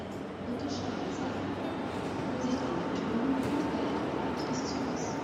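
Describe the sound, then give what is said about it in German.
Steady, busy railway-station ambience at Berlin Hauptbahnhof at 8:45 pm: a continuous rumble of trains with faint high metallic squeals and indistinct crowd murmur, holding an even loudness throughout. “Sechs Wochen später Berliner Hauptbahnhof.”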